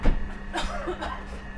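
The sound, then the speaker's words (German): A few short, dry coughs come in quick bursts over a steady low rumble and hum like a moving train carriage. “Da wird gehustet.”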